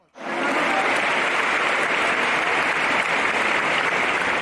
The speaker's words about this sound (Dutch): Laten we haar ontvangen met een groot applaus en met een opengesteld hart.